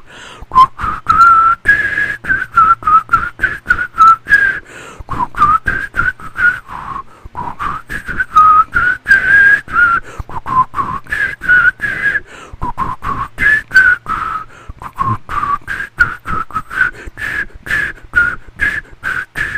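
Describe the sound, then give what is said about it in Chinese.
Someone whistles a melody for the eighth question of a game, about twenty seconds of a clear mid-pitched tone shifting between notes in short phrases with brief breath pauses and airy noise, no talking. “我觉得这首吹得蛮好的啊，这首好像有声音有出来，自己满足。”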